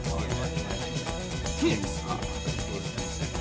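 A rock song plays at full volume, with dense, droning guitars over a steady, driving beat and a hazy, lo-fi texture that fills the whole stretch without pause.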